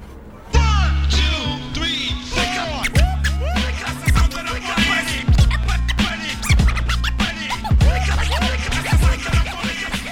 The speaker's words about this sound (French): ou encore évidemment la scène où on voit euh, … qui mixe depuis sa fenêtre.